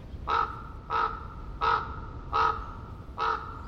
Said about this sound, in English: We leave the Methow Valley in eastern Washington state and head to the coast of southern Oregon. Prairie Creek, Redwoods State Park, an ancient forest. Fog lays heavy among the towering redwoods and hemlocks. A raven calls out.